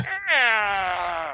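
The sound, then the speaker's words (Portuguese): A voice imitates a chihuahua growling: one sustained, high-pitched whiny snarl lasting just over a second, its pitch sliding slightly downward before it fades. “o graveto ouvindo esse barulho, ele rosna. Né? Pode rosnar.”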